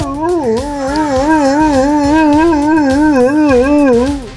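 A dog named Max howls loudly in one long, unbroken, wavering cry, its pitch wobbling up and down with a whimpery, mournful quality. No one speaks.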